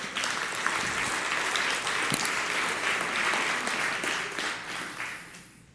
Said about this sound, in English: So, to help me with this illustration, I'm going to ask my two boys if they would go ahead and come up, and you guys give them a round of applause as they come.